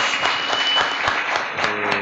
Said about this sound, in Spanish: un aplauso para él por, por amenizarnos.